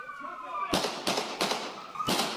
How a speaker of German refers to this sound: Es fallen neun Schüsse.